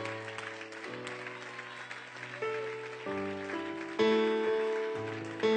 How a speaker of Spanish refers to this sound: Un aplauso al Dios de Israel, al Dios de Jacob.